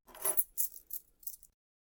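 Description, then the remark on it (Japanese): A metallic jingle of keys being handed over in a hospital, a short clattering shake followed by three quick, bright tinkling rattles, then silence. “三田は鍵をクスとに手渡した。”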